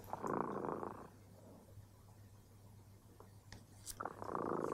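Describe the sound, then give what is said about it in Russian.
A cat purrs softly and steadily, its low rumble swelling in slow breathing cycles, with no voices. “Слышите? Кот Дремота запел свою песенку это значит, что пора засыпать.”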